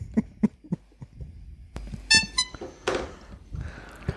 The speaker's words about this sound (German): Was ist das für eine Hupe?